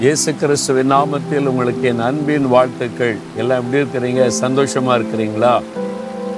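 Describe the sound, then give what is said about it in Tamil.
A steady roar of rushing water from a waterfall runs continuously beneath a man talking warmly throughout, the hiss staying constant and fairly loud behind his voice. “இந்த ஃபால்ஸு அது விழுகிற சத்தம் இதெல்லாம் பார்க்கும்போது மனசுக்கு நல்லா இருக்குல்ல”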